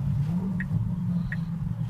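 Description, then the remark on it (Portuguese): A car approaches and passes, heard as a steady low engine rumble that stays level throughout, with two brief faint high chirps in the background and no talking. “Peraí, peraí que tá vindo um carro.”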